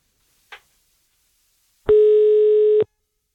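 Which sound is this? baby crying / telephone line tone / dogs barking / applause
telephone line tone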